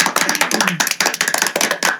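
Hand clapping, a quick, steady run of sharp, bright claps filling about two seconds at a fairly loud, even level, with no talking over it.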